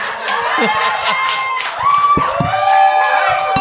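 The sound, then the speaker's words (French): A live crowd cheers and claps in a loud, continuous wash of voices, whoops and scattered hand claps, with whistle-like shouts rising above the steady noise of the audience. “Bravo les gars. Applaudissez-les.”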